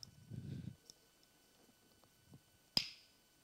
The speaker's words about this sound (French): quelqu'un frappe à la porte. C'était le jardinier zen qui lui tend une magnifique citrouille.